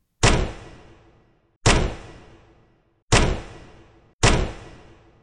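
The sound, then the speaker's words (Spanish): Four heavy knocks from a door knocker strike a door at a slow, uneven pace, each loud impact ringing out briefly before the next. No voices are heard. “Elizabeth volvió a golpear la puerta con el aldabón.”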